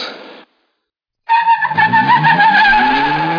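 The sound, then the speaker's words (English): Race car tires screech in a skid on a dirt track in the film Fireball 500, a loud sustained squeal with shifting high pitches over a rumbling engine, after a brief burst of noise and a short silence. “Screaming tires or squealing lemon.”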